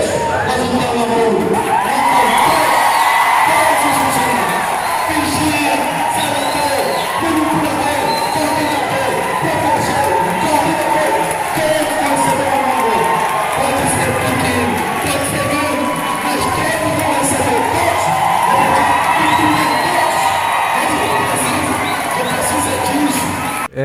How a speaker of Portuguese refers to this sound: realmente a voz do prefeito ficou abafada, né? Devido à gritaria lá da, de todos os colaboradores da educação que ficaram felizes.